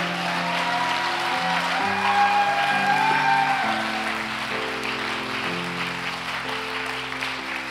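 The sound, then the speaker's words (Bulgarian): An audience applauds in a steady, dense wash of clapping that holds at a fairly loud level throughout, while sustained organ-like keyboard chords shift underneath. No one speaks. “О, ако ръкопляскаш, ръкопляска, че това е за теб.”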